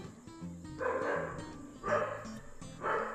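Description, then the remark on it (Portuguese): A dog barks three times at roughly one-second intervals, each bark a sharp burst, over a faint steady hum in the background. “Esse cachorro é muito fofoqueiro, gente.”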